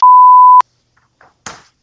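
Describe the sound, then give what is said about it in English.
A loud, steady electronic beep holds for about half a second and cuts off with a click, followed by brief, faint bursts of garbled, robotic-sounding call audio. “Still underwater. Robot. Robot.”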